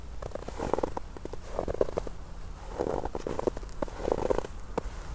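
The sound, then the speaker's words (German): Footsteps crunching through a closed layer of snow, a steady walking rhythm of about five squeaky, granular crunches, moderately loud, with no one speaking. “Ich habe gerade noch ein akustisches Highlight. Ich ja. habe nämlich eine geschlossene Schneedecke gefunden.”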